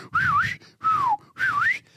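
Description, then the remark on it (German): A person whistles three short whistles in quick succession, imitating a whistle from a sitcom laugh track: the first and last dip and rise, the middle one slides downward, each followed by a brief pause. “Auch so ein, einen, so ein Pfeifen, so.”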